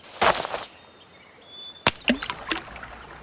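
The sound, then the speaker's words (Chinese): A fishing line whooshes through the air, then a sharp plop as a hook baited with a small earthworm hits river water, followed by a few small splashes and drips, with no talking. “猫妈妈给鱼钩穿上了小蚯蚓，然后把鱼钩甩到河水里，等着鱼来上钩了。”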